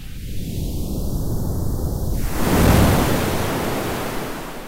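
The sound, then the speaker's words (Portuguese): Ocean waves wash steadily against the shore, a continuous hissing roar that swells as one wave builds and breaks midway, then slowly recedes. No voices. “Mas para nós soa como uma melodia né? como o, o Canto do Mar.”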